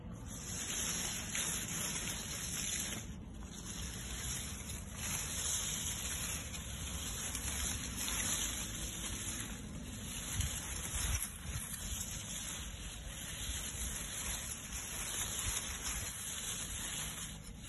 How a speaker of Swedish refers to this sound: Eh, och absolut närmst just platsen med den här eh, lekskulpturen Lövet så var det sån här eh, sassabambu som är lite lägre och väldigt tät. Eh, och den var också väldigt eh, prasslig. Mm. Och jag tänkte vi kan lyssna lite på hur det lät.